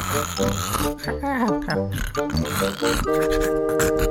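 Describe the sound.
A voice imitates Winnie snoring, making a run of loud, piggy snorts and throaty rumbles that ends in a drawn-out nasal drone.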